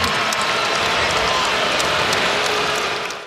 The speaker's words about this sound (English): And the Spurs fans promptly responded by booing louder than they ever had.